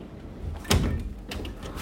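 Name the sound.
door being closed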